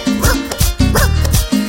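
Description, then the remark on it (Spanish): A dog answering a phone call barks in quick, loud back-to-back bursts, a rhythmic string of woofs and yips repeating over a couple of seconds with no talking. “Lo llama por teléfono y de esta manera el perro le contesta.”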